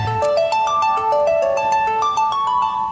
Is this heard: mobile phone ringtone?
yes